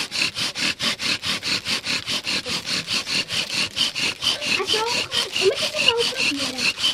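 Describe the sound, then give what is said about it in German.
A wooden fire drill, with a stone laid on top, grinds against a small wooden board held to the ground by foot, in quick, steady back-and-forth strokes, about four per second, a loud raspy friction that continues throughout, with a faint voice murmuring toward the end. “Ich fixiere das Brettchen gut am Boden fixieren mit meinem Fuß und nehme den Stein und lege den auf den Feuerbohrer.”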